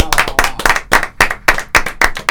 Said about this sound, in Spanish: Un aplauso con delay, ¿viste? Porque ya se había ido el día.